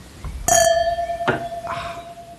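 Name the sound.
wine glasses clinking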